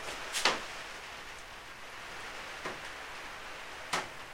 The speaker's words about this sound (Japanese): ガーデンルームに出たらもしかしたらこのマイクでもちょっと音入るんじゃないかなまあ音がガーデンルームに行ってみましょうほら雨の音が聞こえるでしょ